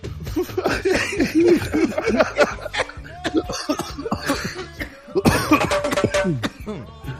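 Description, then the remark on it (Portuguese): A series of repeated coughs comes in quick bursts, mixed with laughter and chuckling from people, with a brief pause midway before more coughing and laughing. “me preparei muito, depois que tava, que tava bem preparado, pensei, basta são só cinco tossidas.”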